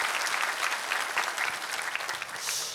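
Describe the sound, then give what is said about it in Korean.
A church audience claps steadily in encouragement for the S Gangnam community after their praise singing, a dense, even wash of many hands keeping a fairly loud level throughout the few seconds, with no voices standing out. “우리 S강남 공동체 우리 수고하셨는데 한 번 힘찬 격려 박수 부탁합니다.”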